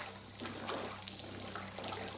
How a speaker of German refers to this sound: Am Ende wartet das Wasser, eisig an den Füßen. Sie verhaken sich an den Steinen.